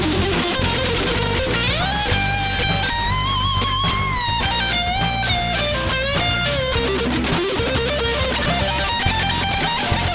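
A full band plays loudly while a 12-year-old guitarist's electric guitar solo soars on top, with sustained, bending lead notes and vibrato over steady drums and bass, no voices present.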